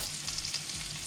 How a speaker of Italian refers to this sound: rispondendo correttamente al rumore che era per l'appunto una friggitrice